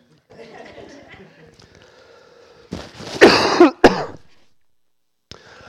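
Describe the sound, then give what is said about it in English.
A person coughs several times during a church service, a harsh burst of a couple of loud hacking coughs followed by a sharper one, then quiet with a faint trailing breath. “And so, sorry guys, if you don't like hearing somebody cough, you came to the wrong church today.”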